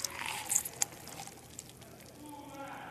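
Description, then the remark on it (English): Lime juice is poured onto a person in a quick splashing burst with a couple of sharp drips, then a softer trickle fades out, with faint voice sounds in the background. “She just poured lime juice on my.”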